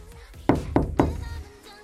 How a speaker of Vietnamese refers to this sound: Có ai gõ cửa ở ngoài phòng thay đồ nên cô đành phải đi ra